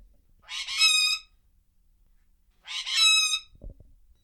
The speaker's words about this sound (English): We also have six birds in a room on the other side of the house. It's not a very big house, but well, you want to hear what they sound like? Let, us see if I can get them to talk for you.